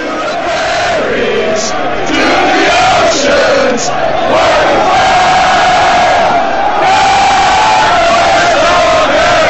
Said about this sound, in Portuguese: Então essa música cantada tem a, a, versão de estádio que a gente vai ouvir